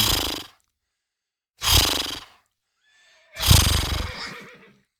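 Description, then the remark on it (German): A horse whinnies and snorts in three loud bursts separated by short silences, the last call longest with a rising and falling pitch, with no voices present. “ohne einen Bruch dazwischen zu haben, so den fließenden Übergang eigentlich äh, wie selbstverständlich da, den Ton da vorne auch dann zu, zu platzieren, wo das Schnauben und das mm war.”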